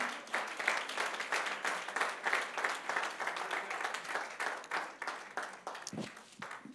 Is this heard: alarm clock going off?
no